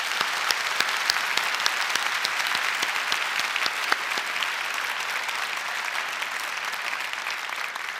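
A large church audience applauds steadily to give glory to the Lord on the church's 30th anniversary, a dense wash of many hands clapping at once with sharp individual claps popping through, sustained and even in loudness across the whole stretch, with no talking.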